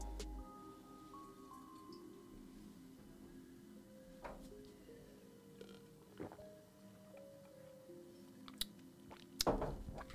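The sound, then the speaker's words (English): Someone fetches and drinks a glass of ice-cold water: quiet clinks and faint drips, with a low hum underneath, then a louder splashy burst of pouring or gulping near the end. No one speaks. “I just gotta get some more water.”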